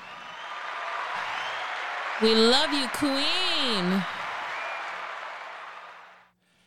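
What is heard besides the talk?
audience applause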